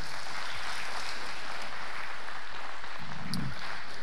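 An audience claps together in steady, sustained applause, a dense wash of many hands for the full few seconds, with no voices standing out.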